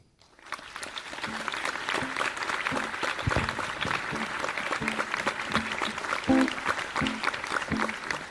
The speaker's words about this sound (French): Je vous demande d'applaudir bien fort